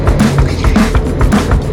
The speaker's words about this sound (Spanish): Vamos en el coche hoy. Pues, pues sí, la cosa va de que voy conduciendo.